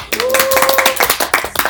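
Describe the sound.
A group of people clap together in a dense, steady patter of sharp hand claps that fills the whole moment, loud and continuous, with a faint voice mixed in underneath.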